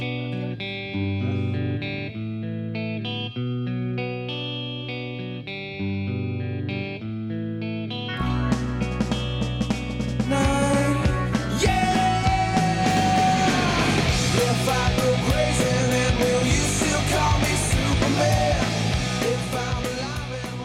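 A rock song opens with a steady, chugging guitar riff for about eight seconds, then the full band crashes in with loud distorted guitars, driving drums and a shouted-sounding vocal.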